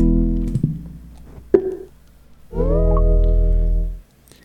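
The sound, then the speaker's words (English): A call connection glitches: a voice breaks into warbling, robotic tonal fragments with abrupt cutoffs and a sharp click, then a steady buzzy droning stretch that suddenly drops out. “He's glitching today.”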